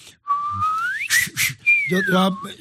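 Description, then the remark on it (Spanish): A person whistles a smooth upward glide, like a glissando, pauses for a couple of breathy hisses, then whistles a long downward slide, fairly loud with a faint hum beneath the end. “Lo que pasa es que eh, la facilidad silbido es que es como un glissando, ¿no?”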